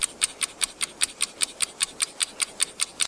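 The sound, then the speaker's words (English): A clock, the Brexit clock, ticks steadily in a cupboard, about five crisp, bright ticks per second with a metallic edge, fairly quiet, with no voices or other sounds. “Because that is the Brexit clock. It has been ticking relentlessly in a cupboard since the end of March, inaudible, it seems, to David Davis.”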